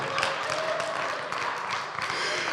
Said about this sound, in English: And I can't tell you how much I love the fact that y'all clapped for that.